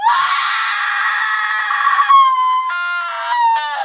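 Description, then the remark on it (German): A piercing, shrill scream rings out loudly and sustained for several seconds, wavering in pitch with harsh tonal overtones, alone without any talking. “Du hörst einen spitzen, schrillen Schrei.”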